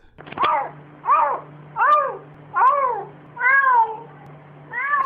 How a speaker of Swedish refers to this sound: Alltså, han fejdar ju nästan in i jamandet. jag vet, han gör det så jävla snyggt!